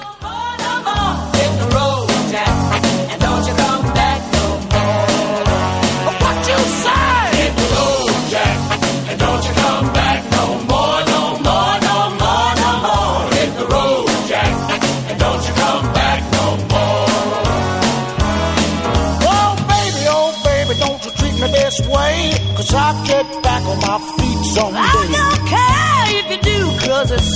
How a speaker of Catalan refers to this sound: I escoltem ara un clàssic, …